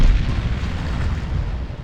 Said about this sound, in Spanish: el torpedo ni siquiera tiene que tocar el buque enemigo, estalla cuando pasa por debajo. Entonces la explosión, digamos, se apoya en el agua para levantar al barco bruscamente hasta romperle la quilla de mala manera